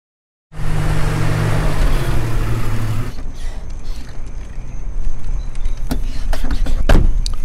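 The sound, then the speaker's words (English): A Jeep's motor whirs and rumbles, then a couple of sharp thuds land near the end, like Jeep doors slamming shut, with the second one louder. “Jeeps slamming should be doors and stuff.”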